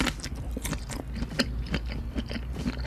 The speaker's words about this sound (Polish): Nie wiem, czy wiesz, że nawet ludzie nagrywają te ASMR-y, jak jedzą kiełbasę, bo to pięknie brzmi. Piękny jest ten odgłos.